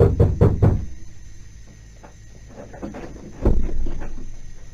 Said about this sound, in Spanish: de mañanita se oyeron golpes en la puerta.